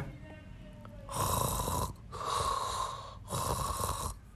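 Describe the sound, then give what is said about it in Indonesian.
Three loud, rasping snores in a steady rhythm, each a long buzzy inhale with brief quiet gaps between them. Likely a person imitating snoring. “aduh kok tidur sih emang aduh aduh kok tidur sih padahal seru banget loh”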